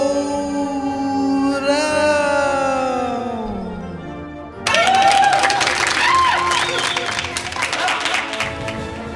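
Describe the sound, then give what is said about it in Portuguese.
A sliding, descending tone fades out, then a loud burst of audience applause with some cheering breaks in at a live show and continues steadily for several seconds. “Uma, salva, salva de, de palmas, palmas para o”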